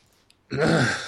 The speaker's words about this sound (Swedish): Kanske inte gäspa mer för jag är lite trött som du förstår.